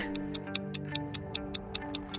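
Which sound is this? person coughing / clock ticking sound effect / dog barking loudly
clock ticking sound effect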